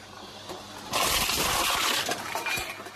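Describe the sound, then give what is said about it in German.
A bottle return machine crushes a plastic bottle thrown into its slot: a loud burst of rattling, crunching and crumpling that lasts under two seconds, over a low mechanical background hum, with no voices. “Da gibt es so ein Ratschen und so ein Knirschen und so ein Knüllen.”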